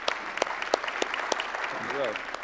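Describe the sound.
A large audience claps steadily and densely to thank military veterans standing among them, a sustained wash of applause, with a voice briefly rising over it near the end.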